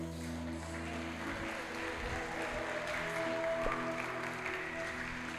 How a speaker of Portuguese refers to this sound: Você está aplaudindo porque alguém aceitou Jesus?